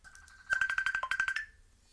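A phone rings for an outgoing call with a rapid, warbling electronic tone, about a second of quick repeated pulses at a steady mid-high pitch, fairly loud, then it cuts off. No one speaks.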